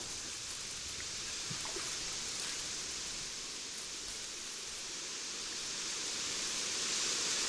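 Steady, airy wind sweeps through a field of reeds on the Nile, a continuous soft rustling hiss that swells slightly toward the end, with no voices present.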